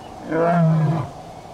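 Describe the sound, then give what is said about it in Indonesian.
A single deep lion roar from Pak Sising, a story lion who lives in a country in Africa, swells and fades over about a second, loud, with a low rumbling growl and no talking. “Pak Sising adalah singa yang tinggal di sebuah negara di Afrika”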